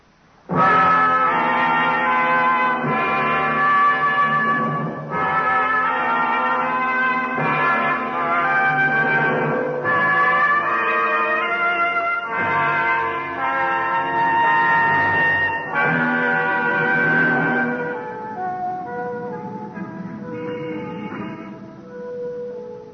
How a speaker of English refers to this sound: The bells ring out on Broadway, the horns blow, and there's laughter.